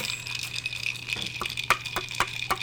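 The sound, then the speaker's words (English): A series of sharp metallic flicks against an iced beer can, about six quick taps from mid-clip onward, bright and tinny over a low steady hum, with no talking. “That's me flicking oh, my, my beer ice, can.”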